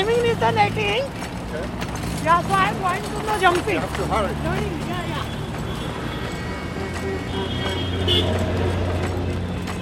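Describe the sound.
A busy, chaotic traffic-filled street in Mumbai's business district, with a tiffin cart being pushed through the traffic: a steady roar of traffic and engine rumble, with car horns and indistinct voices rising over the dense background throughout.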